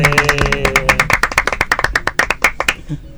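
A short burst of applause from a few people, with sharp, rapid hand claps at an uneven rhythm, fading out after about three seconds alongside some faint voices at the start.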